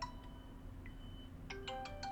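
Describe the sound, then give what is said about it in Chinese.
A phone ringtone for an incoming call plays alone: a short electronic melody of bright, tonal beeps stepping between pitches, quiet at first and then a quicker cluster of notes near the end, over a low steady hum. “Sorry，我现在必须要接接一个电话，应该是我女儿。”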